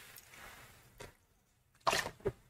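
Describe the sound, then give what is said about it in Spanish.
A quiet sip of water: a brief wet slurp, then a louder gulping swallow and a short wet click, with no talking. “Ah, un traguito de agua.”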